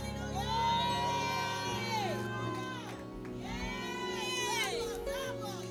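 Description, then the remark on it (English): A church audience shouting together as the preacher urges them to shout, many overlapping voices rising and falling in loud, sustained cries, continuous for several seconds with a low drone underneath. “Start shouting. Just start shouting.”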